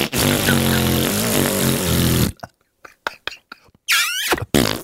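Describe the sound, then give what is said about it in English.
Someone blows a long, loud, buzzing raspberry with the voice, imitating a fart as a mock version of brown noise, for about two seconds, followed by a few short breathy bursts and then laughter. “Brown noise is just someone going.”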